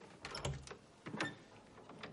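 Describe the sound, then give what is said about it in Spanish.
A woman opens a door with a brief creak and a couple of soft clunks and rattles, then a fainter bump after a short pause, all fairly quiet with no voices. “Ella abre la puerta.”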